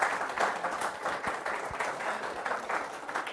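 An audience applauds with dense, steady clapping that holds at an even level for a few seconds, many hands blending into a continuous crackling wash.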